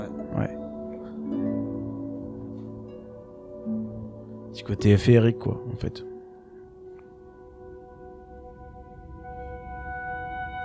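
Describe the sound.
Electronic music with harp and voices plays at moderate volume, long sustained tones with a brief busier swell midway, while people talk over it.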